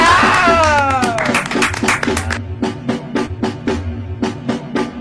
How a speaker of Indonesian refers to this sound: Kita setelah season 1 kita akan memulai lagi balik ke season 2 nama podcast yang apaan tepuk tangannya dulu apa